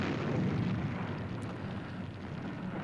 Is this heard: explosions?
yes